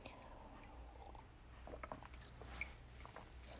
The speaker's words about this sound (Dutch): Eén momentje, ik neem even een slokje thee.